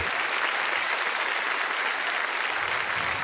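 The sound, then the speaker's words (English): A large standing audience at Calvary church applauds steadily to welcome Matt Hammitt as he comes to preach, a dense wash of many hands clapping at once, loud and sustained throughout with no pauses or voices standing out. “So, if you would, Calvary, would you stand to your feet and give a great big Calvary welcome to Matt Hammitt as he comes to bring God's word today?”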